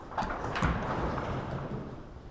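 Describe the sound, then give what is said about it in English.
Two loose, rumbling bursts of many hands of an audience banging on wooden pews at once, done twice on request before a gospel reading, each a scattered clatter of overlapping knocks echoing, followed by a fading murmur of ambience. “Would you please take your hand and bang on your pew two times?”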